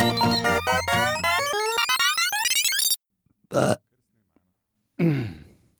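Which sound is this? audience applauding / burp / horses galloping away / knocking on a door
burp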